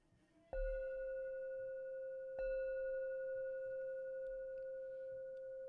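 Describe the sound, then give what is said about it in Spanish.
A meditation bell is struck twice to end a meditation, about two seconds apart, each strike giving a clear, steady ringing tone with bright overtones that sustains and overlaps into the next. No voices. “Cuando vaya a salir de su samadhi o de su meditación, toque la campana dos veces.”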